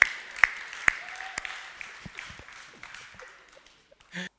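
A short burst of audience applause: a dense patter of many hands with a few sharper claps standing out early, gradually thinning and fading over a few seconds.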